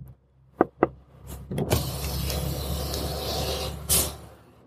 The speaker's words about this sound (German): Guten Tag, wir befinden uns hier auf dem Stadtring und wie immer staut sich der Verkehr.